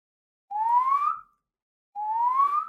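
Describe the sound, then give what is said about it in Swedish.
A person whistles two rising, drawn-out notes in imitation of a curlew's call, each climbing steadily in pitch and lasting under a second, separated by a short silence, with no talking. “Var Lommen eller? Nej, Spoven.”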